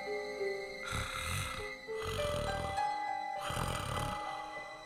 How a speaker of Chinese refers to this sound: 一阵呼噜声传来，小鸡墩墩转头一看，哎，这不是猴子警长吗？猴子警长盖着风衣，在小鸡墩墩的身边睡得正香。